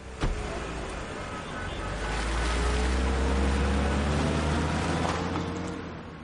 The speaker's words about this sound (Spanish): Tira una flor que quedó dentro del coche, monta y se aleja.